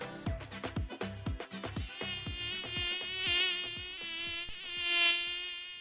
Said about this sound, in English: Could this be the most frustrating sound in the world? A mosquito, which bears the malaria parasite, looking for its next snack, you.